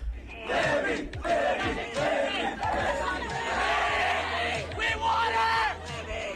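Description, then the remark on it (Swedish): A large crowd of fanatical fans outside a competition screams and chants loudly and continuously, many voices yelling together in an excited, chaotic roar with rhythmic shouted bursts rising above the din. “Eh, för i samband med hennes tävlingar så har det dykt upp då fanatiska följare Eh, som skapar kaos.”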